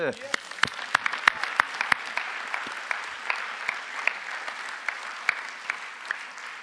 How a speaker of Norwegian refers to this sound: Jeg, ville, jeg tror vi kan, kan ikke vi bare gi Jesus i alle fall en god applaus?